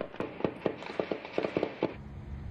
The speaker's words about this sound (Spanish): De noche se escuchan disparos.